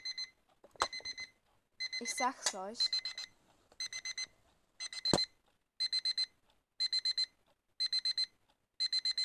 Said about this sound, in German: Der ist ganz furchtbar, ich sag's euch. So, und stell dir vor, er ist halt im Tiefschlaf oder so. Und genau dann läutet dieser Wecker.